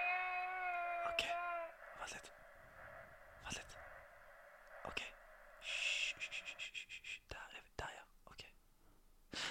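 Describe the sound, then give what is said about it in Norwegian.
A baby monitor relays a short, tinny baby whimper, then hissy static with soft whispery breathing and a series of sharp clicks and crackles, all fairly quiet. “Her er babycallen.”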